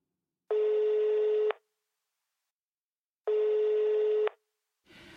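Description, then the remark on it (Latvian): Two long electronic ringback tones sound over a phone line, each about a second with a pause between, steady and fairly loud, as an outgoing call to the Sigulda archive waits to be answered. “Zvanu Siguldas arhīvam.”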